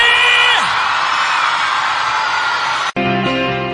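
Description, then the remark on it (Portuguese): A loud crowd shouts and cheers continuously, with high whoops rising above the roar, then cuts off abruptly into a brief steady tonal passage. “Quem gostou, não gritando aí!”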